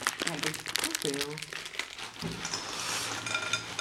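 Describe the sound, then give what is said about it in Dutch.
A plastic kilo bag of edamame, Japanese soybean snacks from a toko, is pulled open and crinkled, with loud, continuous rustling and crackling throughout, while people talk over it. “Oké, maak die zak maar even open, ja. Dat, ja, dat gaat heel veel herrie maken.”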